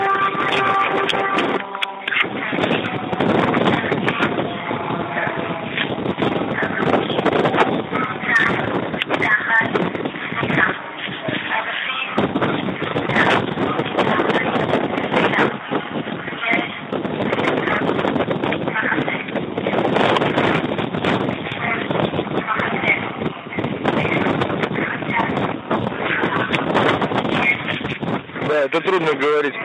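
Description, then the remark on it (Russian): An evening desert wind blows hard and steadily against the microphone as the day's heat eases, a continuous rushing roar with gusty swells throughout, while a muffled voice is faintly audible underneath. “Тут, помимо всего прочего, еще вечерний ветер пустынно дует, что, в принципе, очень приятно, потому что, наконец-то, э, жара спала или спала.”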